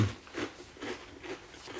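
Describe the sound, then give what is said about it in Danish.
Crunchy chewing of a crisp snack, with several rhythmic bites and crunches spaced about half a second apart, fairly quiet and without any talking. “Altså, den knaser i radioen.”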